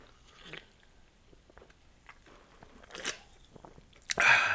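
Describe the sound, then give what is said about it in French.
A can of Diet Pepsi soda is cracked open: faint fumbling clicks and a brief crackle, then a sharp pop of the tab followed by a loud, bright fizzing hiss at the end. No one speaks. “Ah, vous connaissez ce son familier-là, hein? Ah, c'est pas une bière, hein?”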